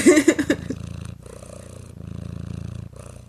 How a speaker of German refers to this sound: Aber er schnurrt auch. Hört man das? Ja, oh. das hört man ziemlich doll sogar.